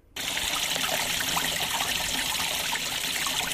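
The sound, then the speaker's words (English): Water gushes steadily from a large leak in a stone wall on Manuka Street in Miramar, Wellington, a continuous splashing, bubbling rush that starts abruptly and stays loud throughout, with no voices. “No, that's the sound of a large leak gushing out of a stone wall in Miramar's Manuka Street in Wellington.”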